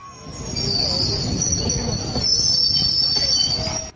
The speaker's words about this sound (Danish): Men lige som de når toppen af den næst sidste bakke, så bremser rutsjebanen fuldstændig.